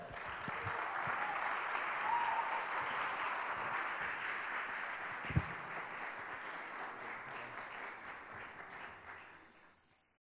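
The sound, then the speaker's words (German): An audience applauds steadily to welcome a guest preacher, a dense wash of clapping that holds even for several seconds, with one sharp thump partway through, then gradually thins and fades out. “Also lass ihn mit einem herzlichen Applaus begrüßen.”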